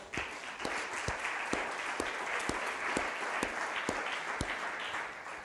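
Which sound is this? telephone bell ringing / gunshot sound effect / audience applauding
audience applauding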